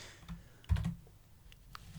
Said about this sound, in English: Because I just started typing over you saying that.